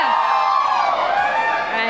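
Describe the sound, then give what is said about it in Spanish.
A crowd shouts a cheer of the Escuela Nacional Preparatoria in support of judo, a loud, dense wall of voices that holds steady and energetic from start to finish. “Vamos a hacer un grito de la Escuela Nacional Preparatoria por judo.”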